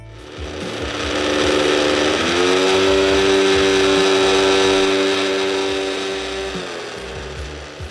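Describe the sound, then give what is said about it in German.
A small, empty electric multi-chopper runs idle with the turbo button pressed now and then, its motor revving up to a steady, buzzing whine for several seconds before winding down, fairly loud, sounding much like a scooter engine. “Das ist gar kein Roller, sondern ein kleiner Multizerkleinerer, in dem nichts drin ist.”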